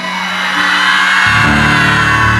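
An audience yells together in a loud, sustained collective shout, imitating how Jacob cried out when the Lord dislocated him. The voices swell and hold for a couple of seconds with no speech.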